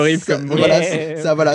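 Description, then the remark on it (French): A voice imitates the Tetris game-over sound on the Game Boy with a wavering, goat-like bleat lasting about a second, loud, followed by brief speech and laughter. “pour le game over de Tetris, pour ma part, j'ai toujours, euh, toujours cru que c'était le son d'une chèvre sur Game Boy.”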